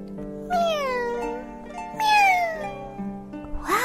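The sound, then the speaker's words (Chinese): Two kittens that have just woken up meow: two drawn-out, high-pitched meows, each sliding downward in pitch, followed by a brief third squeak at the end, with a faint steady hum beneath. “又有两只小猫睡醒了。”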